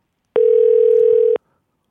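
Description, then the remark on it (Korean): A steady telephone dial tone hums alone for about a second as a phone call is connected, starting and stopping abruptly, clear with no voices. “전화 연결해주세요.”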